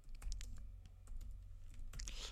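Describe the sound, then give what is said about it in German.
Quick, uneven key clicks from a computer keyboard as someone types a Google search, a burst of typing with short pauses between strokes, heard alone over a low background hum. “Ich will einmal googeln, dass sie das sagt, okay?”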